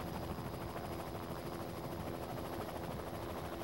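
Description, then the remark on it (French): A helicopter carrying a stereoscopic camera, used to take three-dimensional photos of damaged trees, drones steadily overhead, its rotor chopping in a fast, even pulse over a loud, continuous engine roar, with no voices. “Il installa une caméra stéréoscopique sur un hélicoptère et prit des photos tridimensionnelles des arbres endommagés.”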